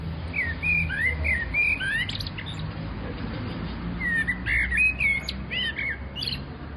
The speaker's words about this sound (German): Das muss man sich vorstellen, macht, machen diese, das machen diese mittelgroßen schwarzen Vögel. Einfach, die holen das aus sich raus. Und ähm, hier in Schöneberg sitzen die, das machen sie wahrscheinlich überall auf der Welt.